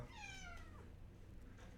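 A single cat meows once, a clear, drawn-out cry that slides downward and fades within about a second, over a low, steady background rumble.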